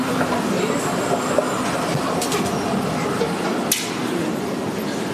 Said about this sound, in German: Die Rolltreppe macht zu viel Krach, also nicht wundern.